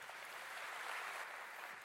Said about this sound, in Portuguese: Se você crer, dê um grande aplauso ao Senhor.